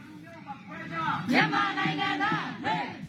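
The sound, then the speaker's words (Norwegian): A crowd shouts a rhythmic protest chant in unison, a rallying cry demanding their rights, many voices rising and falling together in repeated phrases, loud and steady for a few seconds with a brief surge partway through. “Altså det er en, en del av et kamprop.”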